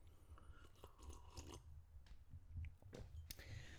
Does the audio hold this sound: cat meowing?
no